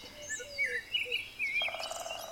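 A small snow-white bird sitting on a branch in a wood sings sweetly, with quick high warbling phrases and thin whistled notes. A faint insect-like chirring comes in near the end, with no voices.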